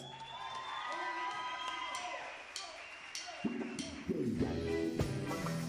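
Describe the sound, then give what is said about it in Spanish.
A crowd cheers and applauds steadily, with high whoops and whistle-like shouts rising over dense clapping; the noise swells louder toward the end, with scattered sharp claps and voices. “El aplauso es para ustedes.”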